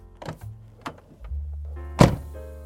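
A few short mechanical clicks from a car door handle, then a low hum and a single loud thunk as the car door shuts, with no voices.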